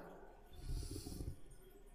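A single deep chest breath drawn in on a count of three during a breathing exercise, shoulders rising; a steady airy rush that swells for about a second and then eases off, with no talking over it.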